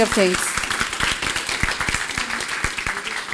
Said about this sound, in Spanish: dele ese fuerte aplauso al Rey de Reyes.